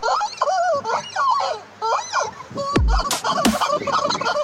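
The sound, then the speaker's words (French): A plastic rubber chicken toy squawks in rapid, erratic bursts as a horse holds it and shakes it. Its wheezy honking cries repeat loudly, broken by a couple of sharp thumps and rustles partway through. “Non, je déconne pas, le cheval a chopé le poulet, il le secoue pour faire du bruit.”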